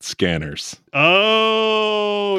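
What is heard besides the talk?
dog vocalizing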